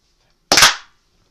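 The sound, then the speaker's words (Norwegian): A single loud burst of clapping, several hands striking almost together in one sharp crack that fades quickly, with silence before and after and no talking. “Så teller vi tre, og så kort applaus.”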